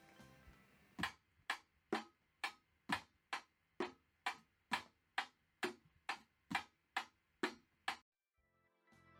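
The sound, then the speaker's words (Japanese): A beginner taps out a simple, steady eight-beat drum rhythm on makeshift objects such as can lids, toy boxes and a trash can: about fifteen sharp, evenly spaced hits at a moderate tempo, fairly loud with no talking, ending abruptly. “もう8ビートらしきものを叩けるようになったじゃん”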